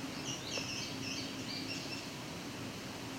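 A faint male indigo bunting sings a quick series of high, thin, descending notes over a steady hiss of background noise, with no voices present.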